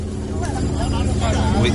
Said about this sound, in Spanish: Mira, parece que estoy inventando la bicha y justo está pasando un, avión, un bimotor, no sé si.